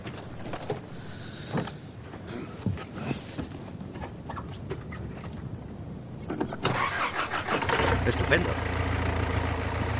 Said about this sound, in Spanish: Didi cierra el capó. Muchas gracias, Didi. El todoterreno de Andre se va.